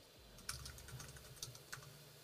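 Quiet keyboard typing with a handful of irregular key clicks, a few sharper taps standing out, over a low background hum. No one speaks.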